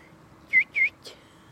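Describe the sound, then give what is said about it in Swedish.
A small bird gives two short, high, clear whistled notes in quick succession, followed by a faint brief chirp, heard fairly close against a quiet background with no talking. “Nej, det skulle vara en, en taljoks.”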